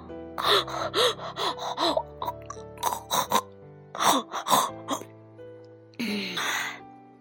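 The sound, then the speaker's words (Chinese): A voice imitates exhausted panting after running until worn out and collapsing on a pile of hay: a rapid run of short, breathy gasps, some with a voiced groan to them, followed by a longer, harsher breath out at the end. “闹闹跑得精疲力尽的，倒在一堆。干草上直喘气儿”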